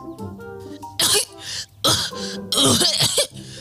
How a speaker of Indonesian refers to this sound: Ia pura-pura terbatuk-batuk hebat.